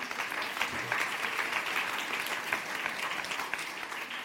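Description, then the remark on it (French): Steady audience applause for a speaker after her broad overview presentation, a dense crackle of many hands clapping at an even loudness with no talking over it. “on peut l'applaudir hein, pour ce grand panorama.”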